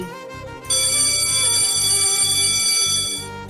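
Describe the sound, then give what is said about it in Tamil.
A college bell rings in one loud, unbroken burst of about three seconds, bright and shrill, with a low, rapid pulsing underneath. No one speaks. “அப்பா பெல் அடிச்சிடுச்சு”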